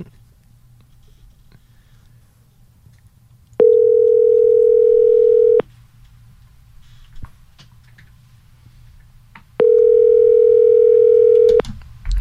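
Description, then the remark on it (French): A phone line's ringback tone sounds twice: two steady, buzzy two-second tones separated by a long pause, loud and clear over faint background hum, with no one speaking. “On est surpris quand le téléphone marche.”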